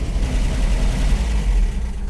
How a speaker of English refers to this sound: What a cool car! Is that vintage? Thanks, Barra. Yeah, it is. A sweet vintage Jaguar, no less.